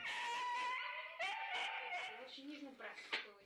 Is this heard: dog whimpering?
yes